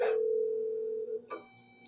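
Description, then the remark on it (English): A telephone line tone of a call to Melania drones steadily for about a second, then stops and a second electronic tone sounds, like an outgoing call ringing unanswered. No voices. “Ah, I guess Melania also can't come to the phone right now.”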